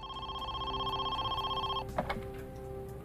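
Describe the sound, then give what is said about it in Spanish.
Just before one in the afternoon, a telephone rings with a steady electronic trill for nearly two seconds, then stops abruptly as the receiver is picked up, followed by a soft clatter and quiet background noise. “Justo antes de la una de la tarde, el teléfono volvió a sonar.”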